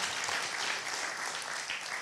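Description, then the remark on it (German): An audience applauds a speaker and the whole team with steady, dense clapping that holds an even level throughout, a continuous wash of hand claps with no voices standing out. “Ich finde, äh, sie hat mal einen Applaus verdient und das ganze Team.”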